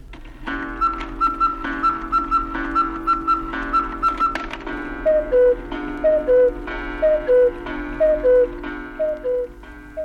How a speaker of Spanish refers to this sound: Claro que aquellos eran relojes muy grandes, con sus pesas, sus péndulos.